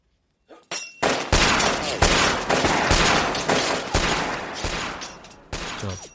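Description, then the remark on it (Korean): A burst of rapid gunfire, a sound effect, rattles out loud, sharp shots piling into a dense, sustained barrage for several seconds before cutting off abruptly, with no voices. “아, 사람 잡는 킬러라면서요총 막 쏘고 칼도 마구 휘두르면서 훈련받지 않나요?”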